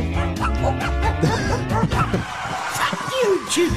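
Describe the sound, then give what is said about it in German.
Bright, cheerful dog barking in short yappy bursts, mixed with busy toy-like electronic tones and some background chatter, steady in loudness. “Punkte auf dem Feld, fröhliches Gebell.”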